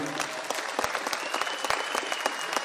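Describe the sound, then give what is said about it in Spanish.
An audience applauds the HPNLianos present, many hands clapping in a dense, even patter of sharp claps that keeps up throughout at a moderate level, with no voices standing out. “Un aplauso para todos los HPNLianos que están por aquí.”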